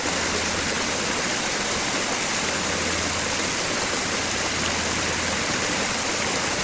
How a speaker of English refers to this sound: Most recently, the Moore Center unveiled a meditation garden, reflecting pool, and gazebo. Water flows over quotes from Harry T. Moore and Martin Luther King Jr.